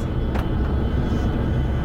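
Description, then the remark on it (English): A steady, heavy low rumble of giant Aeromexico jets taking off and landing at the airport in La Paz, Baja California, Mexico, on a windy tarmac; a continuous engine roar with a brief hiss near the start, no voices. “surrounded by giant Aeromexico jets taking off and landing”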